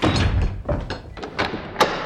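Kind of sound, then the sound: sound effect, door slamming shut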